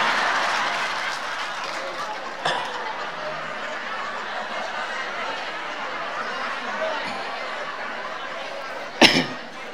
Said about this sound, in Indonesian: tepuk tangan anak-anak